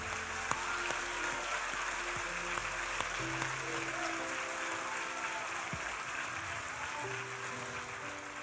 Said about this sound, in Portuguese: Deus senta. Vamos aplaudir Jesus.